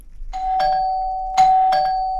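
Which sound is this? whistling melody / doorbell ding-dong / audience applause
doorbell ding-dong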